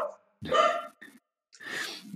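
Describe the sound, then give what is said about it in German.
The speaker's two dogs squabble: a sharp, tonal yelp, a quick short yip, then a rough, snarling growl, in three brief bursts separated by pauses. “da streiten auch zwei gerade. Ne? Durch meine Hunde.”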